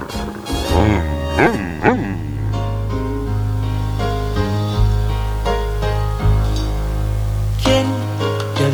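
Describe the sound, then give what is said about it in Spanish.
A song played by a DJ plays steadily throughout, with a sliding, melodic singing voice over sustained low bass notes and layered harmonic instruments, fairly loud and continuous with no pauses. “Vamos a escuchar a uno de mis ídolos,”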